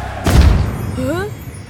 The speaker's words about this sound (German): Doch statt dem Zischen der Harpune hörte er nur ein lautes Puff.